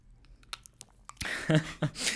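Close-up crackling as a brittle chocolate shell is bitten, followed by a burst of loud crunching and chewing over about a second, with no one talking.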